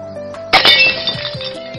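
A vase on a lectern that running children bumped and tilted falls to the floor and shatters with a sudden, loud, bright crash, followed by about a second of tinkling shards settling over a faint steady tone.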